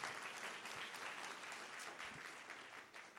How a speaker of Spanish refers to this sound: Alguien puede dar un aplauso al Señor y decirle, gracias Señor por tus planes.